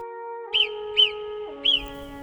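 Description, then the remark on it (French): A small marmot sitting on a low wall whistles three times, short sharp high-pitched calls spaced about half a second apart, over a steady sustained musical drone. “C'est alors qu'à la sortie de l'atelier de Jean-François, une petite bête se mit à siffler.”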